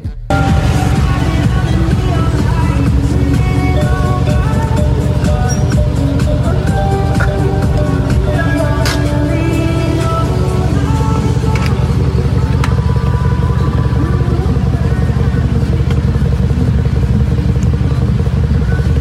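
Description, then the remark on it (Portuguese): A retro Fiat Uno's engine rumbles loudly as a footballer arrives at training, a steady low drone with rattling and clattering as it pulls in and idles, filling the whole stretch without pause. “Olha como ele chegou com seu Uno retrô arrasando no treino.”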